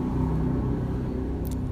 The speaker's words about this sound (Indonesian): sorry ini aku agak stop sedikit karena aduh motor yang lewat luar biasa nyaring banget sih